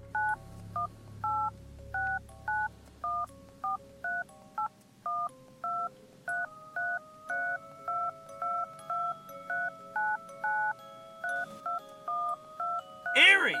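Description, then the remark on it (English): A voice imitating touch-tone telephone dialing: a long, steady run of about twenty evenly paced beeps, clear, with a faint low hum underneath and a short rising warble at the very end. “enough with the phone sound effects.”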